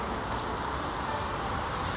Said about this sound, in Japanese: てかうるさいな車がめっちゃうるさいですねもうこのもしかすると聞こえてるかなそのね車のうるささからも分かるようにねもう今帰宅ラッシュです皆さん